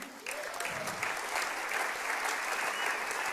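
A crowd breaks into steady applause as a pastor is introduced to give a demonstration, the clapping dense and sustained at an even level for the rest of the few seconds.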